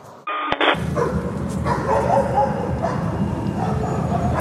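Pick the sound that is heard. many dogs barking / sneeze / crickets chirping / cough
many dogs barking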